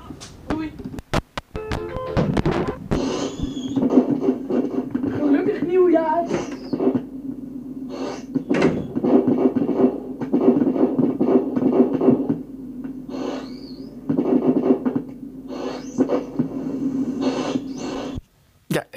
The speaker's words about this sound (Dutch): Dus hier volgt een montage die ik maakte met mijn Cosmel stereo set van één rotje en één pijltje. Net 1994.